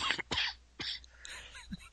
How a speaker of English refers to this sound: so uh, cough hasn't gotten any better.